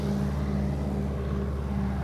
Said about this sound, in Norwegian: Det kommer en traktor her, så vi får bare la den passere mens vi